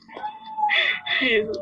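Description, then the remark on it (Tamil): A puppy lets out two shrill, yelping cries in quick succession, fairly loud, while a voice murmurs faintly underneath. “sorry guys எங்கிற நாய்க்குட்டி சத்தம் போடுறா நோ நோ நோ இஷ்யூஸ் அழகா சத்தம் போட்டுட்டு இருக்கு அதுவும் அந்த பக்கம் நீங்க பாடுறத வந்து அதுவும் மோட்டிவேட் பண்ணுது”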